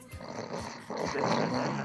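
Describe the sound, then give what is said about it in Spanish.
A voice imitates snoring: a loud, raspy, rattling drone with a few low throaty pulses, building slightly louder partway through and continuing without a break. “No, no a roncar, carajo.”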